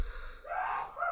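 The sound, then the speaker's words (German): A single sneeze by the speaker's mother: a quick breathy intake followed by a sharp, hissy burst and a brief trailing puff, moderately loud with no talking around it. “What the fuck, das war meine Mutter. Alles Gesundheit.”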